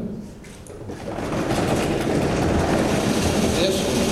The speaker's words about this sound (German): Und dann ist er da, der erste der beiden großen Momente. Vielleicht kriegen wir ein bisschen Trommelwirbel hier von dem Publikum im Saal.